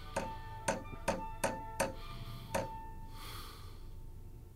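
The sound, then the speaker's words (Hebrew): A hammer strikes nails six times in a steady rhythm, each blow a sharp metallic knock with a brief ringing tail, the last coming after a short pause, then quiet. “הנה המסמרים, הפטיש. ועכשיו לעבודה.”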